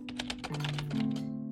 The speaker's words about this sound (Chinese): 小冯同时在当售前和售后客服，键盘飞快起落。